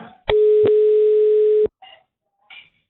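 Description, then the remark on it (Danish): A steady, loud telephone dial tone hums for about a second and a half as a call is placed to someone in Nakskov, punctuated by a couple of sharp clicks, then cuts off, followed by two brief, faint electronic blips. “Det er en telefon, der ringer op.”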